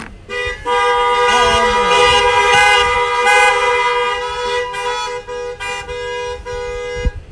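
Several car horns blare together as an 'Amen' at the end of the Lord's Prayer, in a loud, sustained chorus lasting several seconds, with overlapping tones and a few brief breaks before they fade out near the end.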